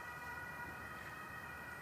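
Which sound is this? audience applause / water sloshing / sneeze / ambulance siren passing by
ambulance siren passing by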